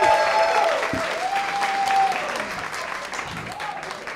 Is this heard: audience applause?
yes